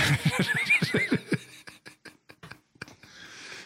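A horse whinnies loudly with a shaky, quavering call that falls in pitch, then trails off into a few short snorts and breathy clicks. No one speaks.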